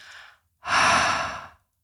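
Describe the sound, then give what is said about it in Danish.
A short breath in is followed after a brief pause by a long, steady, breathy exhale lasting about a second, demonstrating a breathing exercise, with no talking. “Og så laver du langt udpust.”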